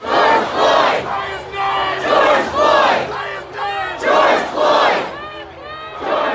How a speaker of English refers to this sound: We have heard George Floyd's name so many times, chanted at protests and more recently at the trial of Derek Chauvin in Minneapolis, where a jury decided last week that George Floyd was in fact murdered.